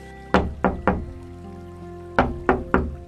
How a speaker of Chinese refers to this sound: 这一回，轮到狮子走到宝座殿前。叩响殿门，